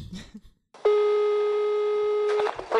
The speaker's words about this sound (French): et du coup, on a un petit jingle qui a également été fait